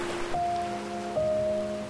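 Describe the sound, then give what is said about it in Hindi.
Steady rain falls at night in a continuous, even hiss, moderately loud throughout, with soft sustained musical tones humming over it and no voices. “सुनो हमारी बातें और ये बारिश तुम्हें याद रहेगी ना”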